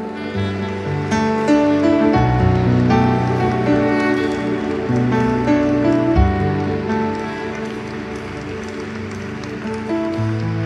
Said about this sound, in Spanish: Es una marca, es una señal de que avivamiento viene, viene, viene. Apláudele fuerte al rey.